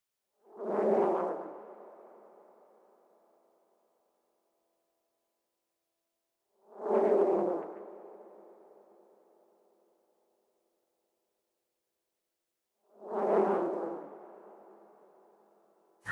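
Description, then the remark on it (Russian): A synthesized tone, a patch made in Alta and used at the beginning and end of a track, sounds three times, roughly six seconds apart, each swelling quickly into a rich, resonant hum with a whooshing edge and then slowly fading into silence. “Вот, это э, патч, просто который я сделала в, в альта.”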